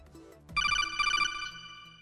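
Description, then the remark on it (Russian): A codec call ringtone for an incoming call chirps in a rapid, warbling electronic trill, loud, ringing for about a second before fading out. No one speaks. “О, погодите, мне, походу, кто-то звонит по кодеку.”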